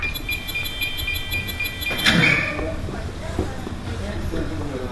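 A run of rapid electronic beeps, like a lock disengaging, gives way to a sudden mechanical clunk and the whoosh of a door sliding open, followed by a low rumbling background.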